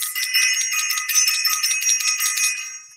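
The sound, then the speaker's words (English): A small handbell rings rapidly and continuously, bright, its quick strokes blurring into a steady shimmering jangle for a few seconds before stopping. No one speaks. “I want to ring the bell for self invested.”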